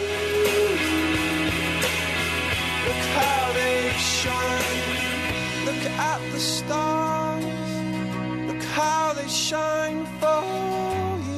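A slow pop song from the soundtrack of the film Locamente Millonarios plays steadily and loud throughout, with a sung vocal melody gliding over sustained, full instrumental chords and a deep bass line that shifts partway through.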